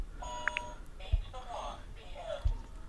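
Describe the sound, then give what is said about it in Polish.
Two quick, high electronic phone-dialing beeps sound early on as a call is placed to a contact's mobile number, followed by murmured voice-like tones and a couple of soft low thumps over a steady hum. “Komórka, połącz.”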